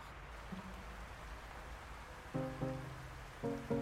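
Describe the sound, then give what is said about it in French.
A steady, dense hiss of heavy rain pours down throughout, while a few sustained musical notes sound over it, briefly and faintly at first, then louder near the end. “Or, voilà qu'un jour, alors qu'Anako rentre chez elle, la pluie se met à tomber très fort.”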